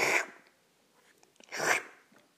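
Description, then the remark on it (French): Two loud, noisy sniffs, someone sharply sucking in air through the nose as an example of the noisy sniffing to avoid in front of an exam jury, about a second and a half apart, with faint clicks and small mouth noises in the quiet between them. “Évitez de renifler, d'aspirer l'air ou votre salive de façon bruyante, du genre”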